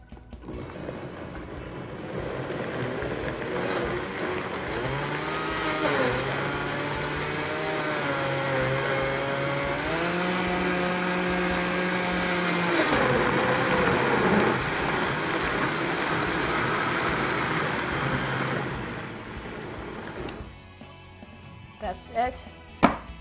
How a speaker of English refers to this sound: And then we're going to add a little water. Okay, we're just gonna blend it all together.